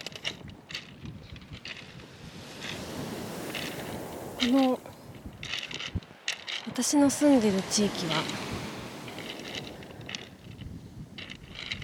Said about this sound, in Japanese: 風が強いんで今ももしかしたら風の音が入っちゃってるかも